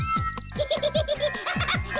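A bird chirping sound effect: a quick, steady series of short, bright tweets, fairly loud, with no one talking over it.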